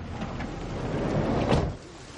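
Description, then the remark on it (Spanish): A car door swings shut with a muffled thump midway through, set against a steady low rumble of background noise; no one speaks. “Cierra la puerta.”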